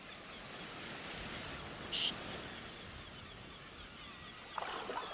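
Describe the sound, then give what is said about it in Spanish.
A steady, continuous wash of ocean waves fills the whole recording, with no one speaking; a brief high-pitched chirp cuts in once partway through, and faint knocks sound near the end. “Ahora, en exclusiva, el ruido del mar.”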